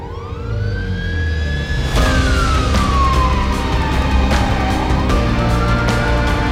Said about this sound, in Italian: Poi, a un tratto, un'ambulanza mi passa a 10 cm dal viso, sfrecciando ad alta velocità.